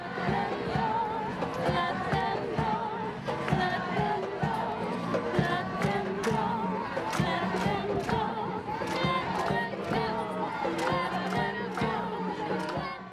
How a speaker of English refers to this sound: instead of looking out at the police officers they were looking through the fences to where the kids were being held and they matched with whatever was being chanted by the crowd let them go, let them go. But they started singing it.